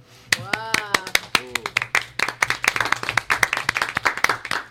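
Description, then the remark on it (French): An audience claps in quick, dense bursts that build and keep going, with a couple of short, high voiced whoops rising over the first few seconds. “Merci, j'adore qu'on m'applaudisse.”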